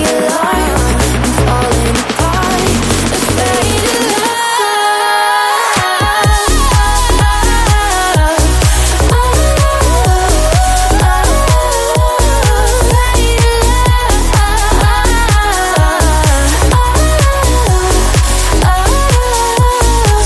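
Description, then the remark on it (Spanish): A loud, upbeat dance-pop track by a German female singer plays on its own: a brief breakdown drops out the bass, then a punchy, steady beat kicks back in with bright synths driving forward. “Lo cierto es que es uno de los temazos que ya puedes escuchar a diario en Megastar FM”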